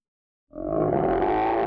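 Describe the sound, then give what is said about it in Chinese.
A deep, rumbling roar of a big grizzly bear rushing out of the woods bursts in after a moment of silence and holds steady and loud to the end, rich in low growling tones. “就在大家都在好奇那是什么声音的时候，树林里突然冲出一只大灰熊，直直跑向袋鼠，吓得他们落荒而逃。”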